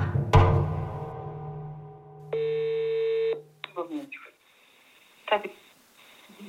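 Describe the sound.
Telephone dialing tones for a phone call in January 2023: a sharp electronic beep, then a steady buzzing line tone for about a second, followed by brief muffled voice fragments over the phone line.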